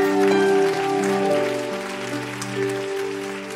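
An audience claps steadily for a few seconds in faith, giving glory to the Lord, a dense crackling patter of many hands over sustained organ-like musical chords, with no talking.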